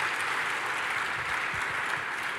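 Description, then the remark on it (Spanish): A crowd claps steadily, a dense, continuous wash of many hands applauding at an even loudness throughout, with no voices standing out, applauding God at the speaker's call. “Podemos darle un fuerte aplauso a nuestro Dios.”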